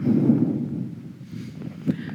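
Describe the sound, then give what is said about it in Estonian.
A steady, fairly loud low rumble of wind buffeting an outdoor microphone, gusting unevenly for a couple of seconds with no voices. “palju tuult ja neli esinejat”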